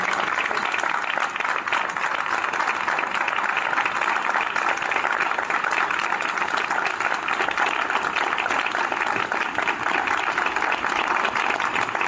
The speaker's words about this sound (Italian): ma direi che hai iniziato alla grandissima, quindi un applauso per favore, ma enorme proprio.